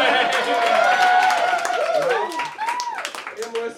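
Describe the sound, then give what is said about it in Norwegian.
An audience claps steadily while several voices whoop and cheer over the top, the mix loud at first and thinning slightly toward the end; a big round of applause for the organizers of the cave party (grottefest). “Jeg tenkte vi starter med å gi en stor applaus til grottefestarrangørene”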